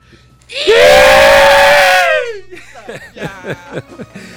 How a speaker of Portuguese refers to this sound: É com a vaia, parabéns, a vaia carinhosa que a gente deseja muito com todo amor. E parabéns para a Fortaleza, 292 anos.